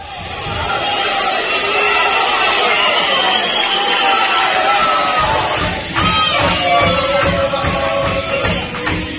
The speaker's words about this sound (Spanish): Eso que estás escuchando es cómo lo vivieron desde las tribunas, con todo el esfuerzo, los aplausos, todos esos sentimientos que vos llevás y calentás a las chicas, calentás a los jugadores, todo eso lo vas a escuchar.